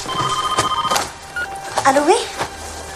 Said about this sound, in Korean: 결혼 후 아내와 함께 프랑스 파리에서 살며 아버지와 소원한 관계를 유지하던 윌에게 어느 날 전화가 울립니다.